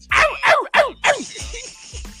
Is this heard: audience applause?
no